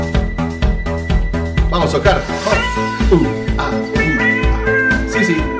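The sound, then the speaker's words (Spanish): A loud, upbeat radio section intro jingle bursts in with a punchy rhythmic beat and bright layered instruments, while a voice briefly shouts or sings over the music. “Y esta sección tiene cortina y suena así.”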